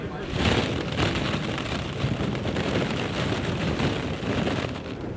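A hand stirs plastic balls in a ball pit where five people are lying, a steady, dense rustling clatter holding at an even loudness for about five seconds with no clear pauses or voices.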